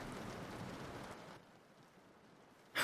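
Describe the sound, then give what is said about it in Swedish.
A steady, soft hiss of rain falling outdoors, loudest at first and then easing to a quieter patter, ending with a brief sharp noise. No one speaks. “Um, en sån snygg man ska väl inte stå här ute i regnet och frysa?”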